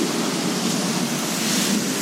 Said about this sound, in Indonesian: keadaan hujan di kota Mataram Pulau Lombok yang gue tepati sekarang memang sekarang intensitasnya untuk hujan lagi deras banget lagi tinggi-tingginya nih